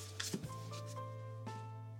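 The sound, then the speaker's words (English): A knife chops through butter on a board in a few soft, irregular strokes and scrapes, with a steady electrical hum underneath and no talking; the butter is being chopped to cut into dough for a pie crust. “Okay, so we are chopping the butter to cut into the dough for the pie crust.”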